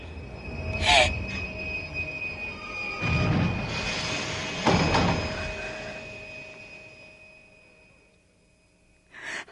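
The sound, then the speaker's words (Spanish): A subway train rumbles and brakes, its wheels letting out high, sustained metallic squeals that rise and fade as the car slows to a stop once again, ending in near quiet with a final clunk. “No, no es cierto. Se paró. Otra vez se paró.”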